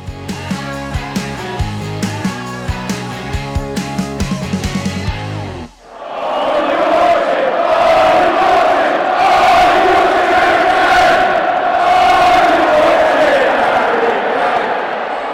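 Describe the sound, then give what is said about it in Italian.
After a few seconds of rhythmic music and a brief drop, a huge crowd of Tottenham football fans chants loudly in unison, celebrating their first-matchday win against Manchester City, singing "Are you watching Harry Kane?", a sustained roar of voices with rising and falling sung phrases. “Cantano i tifosi del Tottenham festeggiando la vittoria nella prima giornata proprio contro il Manchester City.”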